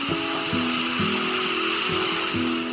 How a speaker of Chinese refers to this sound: 这种星空在城市里边是看不到的，在田的两边都有很吵的蛙鸣声。想到初中的时候，当时我们家那栋楼的后边田里边也是有很多的青蛙的叫声。到了夏天的时候，就会听到这样的声音。